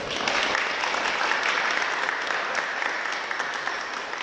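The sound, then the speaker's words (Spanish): A crowd in a parish applauds steadily for the young performers of a pastorela and those who made it possible, a dense, even wash of many hands clapping that holds at a constant loudness for the whole stretch without pause. “Entonces, es un agradecimiento para cada uno de ellos y yo te pido un aplauso para todos ellos y para las personas que han hecho posible esta experiencia.”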